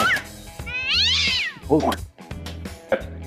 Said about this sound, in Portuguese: Tem um gato aqui atrapalhando as gravações. É, tá, ah, mas o gato de novo entrou pela janela, cara? Que merda! Sai daqui!